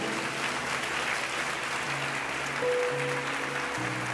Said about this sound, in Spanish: Dar un aplauso al Señor, porque Él es bueno.